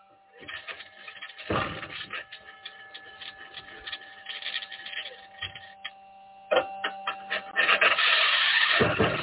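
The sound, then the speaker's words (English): Rough, continuous scratching and grinding from a rover's wheels rolling over the gritty surface of Mars, steady, with occasional sharper clunks and bangs from the suspension that grow louder toward the end. “scratching is the sound of the wheels in contact with the surface of Mars.”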